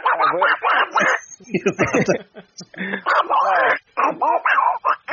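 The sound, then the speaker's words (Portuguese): A voice imitates Donald Duck, producing loud, raspy, quacking speech-like bursts in quick succession with a few brief pauses, mixed with snickering laughter. “só que a voz do pato Donald, entendeu?”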